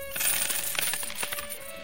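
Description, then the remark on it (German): Small hard chips clink together in a hand, a quick series of bright, metallic taps and rattles over about two seconds, fairly quiet with no voices. “Okay, ja, ich nehme die mal alle in die Hand und äh, klinke sie so ein bisschen rum.”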